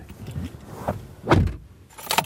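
Someone climbs into a car: a shuffle and rustle of movement, a jingle of keys, then a solid thump as a door shuts, followed by more faint handling sounds.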